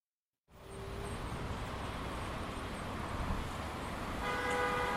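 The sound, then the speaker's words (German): Dense traffic roar at the Verteilerkreis, a central traffic roundabout on Favoritenstraße in the Favoriten district, starts abruptly and holds steady, a busy mix of passing cars. Near the end, a car horn sounds a sustained honk over the rumble. “Der Verteilerkreis ist ein zentraler Verkehrsknoten, ein Kreis, der verteilt, nämlich vor allem Rhein und Rhein an Blech.”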